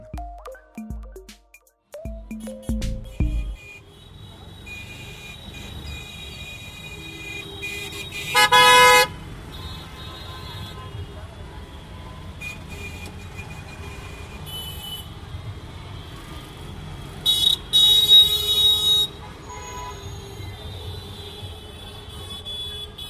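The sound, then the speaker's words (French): Car horns honk repeatedly over a steady rumble of busy street traffic in India, with several loud, sustained blasts standing out amid a dense, noisy road scene. “Ambiance urbaine polluée et saturée qui pourront en agresser plus d'un, mais à ce propos, qu'en pensent les Indiens C'est avec cette question en tête que nous essayerons de comprendre leur rapport au son et à l'usage intensif du klaxon.”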